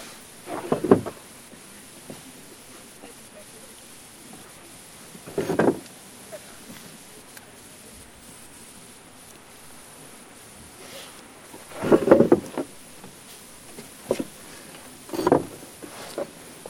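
A wooden table and chair are moved by two people, with a handful of separate scraping knocks and thuds spaced irregularly across quiet pauses, two of them close together near the end, moderately loud, with no one speaking.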